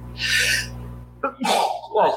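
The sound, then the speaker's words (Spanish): A loud sneeze: a sharp hissing breath drawn in, then an explosive, partly voiced burst of air, over a steady low background hum. “Salud.”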